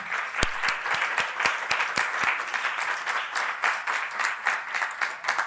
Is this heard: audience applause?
yes